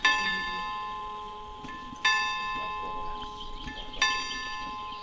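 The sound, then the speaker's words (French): Church bells toll 1 p.m. slowly over a one-hectare garden in central Paris, each strike landing about two seconds apart with long ringing overtones that linger and overlap, against a quiet outdoor background. “Les cloches sonnent 13 heures et viennent à peine troubler la tranquillité de l'endroit.”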